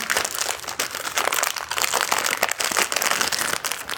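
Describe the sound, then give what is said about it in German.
Crinkling and crackling of the plastic wrapper of a long cookie package being pulled open, a steady busy rustle with sharp crisp bursts throughout, fairly loud and with no talking. “Also in so einer längeren Verpackung. So, das muss ich jetzt mal versuchen aufzubekommen.”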